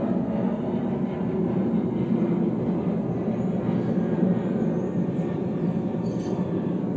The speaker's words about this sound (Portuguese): Tivemos a grande participação do avião. Muito obrigada. Podia estar tá me, tá me levando para algum lugar.